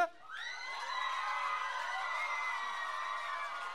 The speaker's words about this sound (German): Der nette Herr da hinten, der uns heute am Schlagzeug aushilft, apropos, großen Applaus dafür,